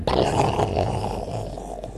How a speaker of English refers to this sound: And there was loud rumbles of thunder.